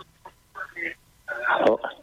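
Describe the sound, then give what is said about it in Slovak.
A listener's phone call connects on a call-in broadcast, and a thin, band-limited voice comes over the line in short bursts, tinny and muffled. “No ale e, to povieme potom, e, keď zdvihneme telefón.”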